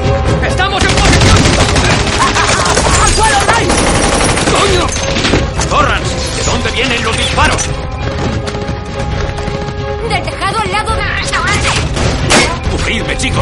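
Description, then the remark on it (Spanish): Rapid bursts of gunfire crackle and thud over a dense, loud action-scene mix with engine rumble and chaotic noise, sustained throughout with little pause; a voice is faintly audible underneath. A character fires at others as a bus pulls away. “El bus se aleja mientras Barry les dispara.”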